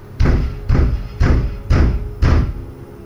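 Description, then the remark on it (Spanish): Five heavy, evenly spaced knocks pound on an apartment door early one morning, each a loud booming thud with a short ring-out, steady and insistent, with no voices. “Una mañana me despertó un golpe increíblemente fuerte en la puerta de mi apartamento.”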